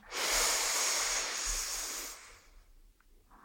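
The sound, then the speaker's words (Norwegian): A long, deep breath drawn in through the nose on a count of four, a steady airy hiss lasting about two seconds, fairly loud, then fading into near silence with no talking. “du tar et kjempestort pust, det største du har tatt i hele dag, inn på fire.”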